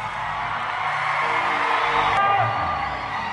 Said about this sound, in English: maybe maybe there's a first timer in church. A first timer in church here is saying, why are they shouting anyhow?